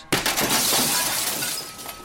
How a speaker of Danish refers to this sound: Så går det løs. Mænd, kvinder og børn løber ud i gaderne i New Yorks slumkvarterer. De slår butiksvinduer i stykker og brækker forretningsfacadernes skodder af stål op med koben.